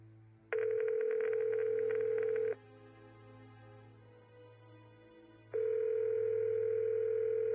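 A phone's ringback tone: two steady, mid-pitched beeps, each about two seconds long, separated by a few seconds of quiet with a faint low hum underneath. No one speaks.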